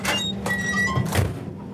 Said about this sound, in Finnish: lentokoneen ovi pamahti kiinni